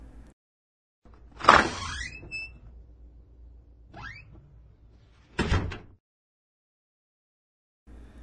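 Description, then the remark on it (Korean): The heavy main gate door of a house creaks open with a drawn-out squeal as someone slips quietly inside, followed by a shorter creak and a dull thud as it settles, with no one speaking. “그러나 아무리 기다려도 나와주는 사람이 없자 오공이 살짝 대문 안으로 들어가 보았습니다.”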